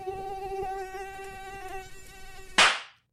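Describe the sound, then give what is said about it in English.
A mosquito whines steadily for about two and a half seconds, its high nasal drone holding one pitch, then a sharp burst of noise cuts in and fades out, with no talking. “we're going to talk about mosquitoes.”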